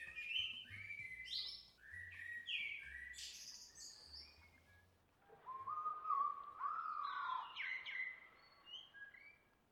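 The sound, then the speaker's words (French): A small black bird perched on a man's fist whistles a varied song of bright, warbling phrases, continuing almost without pause for about ten seconds, with a faint low rumble beneath the first half. “pour le rassurer, lui expliquer qu'il est bien dans ce petit corps noir, siffle du mieux qu'il peut.”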